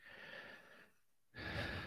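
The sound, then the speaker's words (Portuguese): Two breathy hiccup sounds, each a sharp gasping intake of air, separated by a brief silence; the second is louder and harsher, with no talking. “Agora eu estou com soluço.”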